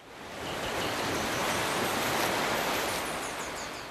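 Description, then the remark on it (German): Steady roar of Indian Ocean surf at Durban at sunrise as the first surfers head into the water, waves breaking and washing continuously with a broad hiss that swells slightly in the middle, fairly loud, with no voices. “Sobald die Sonne über dem Indischen Ozean aufgeht, stürzen sich die ersten Wellenreiter in die Fluten.”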